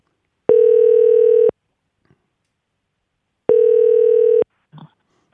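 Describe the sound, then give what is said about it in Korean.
A telephone ringback tone as a call is placed to a listener on Park Myung-soo's Radio Show: two steady, one-second electronic tone bursts about three seconds apart, clear and loud, with a brief faint rustle after the second. “전화 한번 걸어 보겠습니다.”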